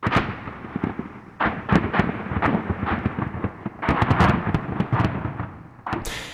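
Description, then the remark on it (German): Dense, continuous rumbling of Russian artillery fire in the Donbass, Ukraine, with rapid, overlapping booms and sharp cracks nearly every second, loud and unrelenting, with no voices. “Das Stahlgewitter der Russen ist fast sekündlich zu hören.”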